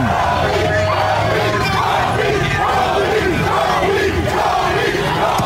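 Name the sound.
crowd chanting a name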